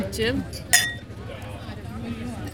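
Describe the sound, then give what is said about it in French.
A couple of bright glassy clinks ring out as drinks are served and one is spilled, the sharpest clink about midway, over a low murmur of background voices and clatter. “Ah, voici nos drinks. Merci.”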